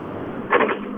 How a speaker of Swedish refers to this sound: Vi får höra mycket motor på slutet.